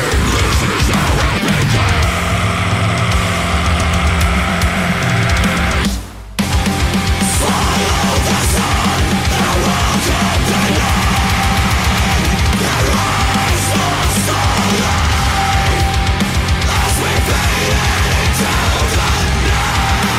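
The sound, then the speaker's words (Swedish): A loud, dense metalcore song by a band from Stockholm, with pounding drums, heavy distorted guitars and raw screamed vocals, broken by one sudden split-second stop before crashing back in at full force. “råa skrik och mycket hård metalcore.”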